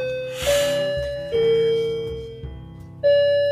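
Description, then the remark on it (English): A wall clock chimes a slow melodic sequence of bell tones, each note ringing out and sustaining before the next strikes, clear with no voices. “If you are in crisis, my God, this clock, I always time it perfect, don't I?”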